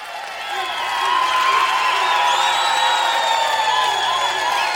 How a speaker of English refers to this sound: Ladies and gentlemen, let's have a round of applause.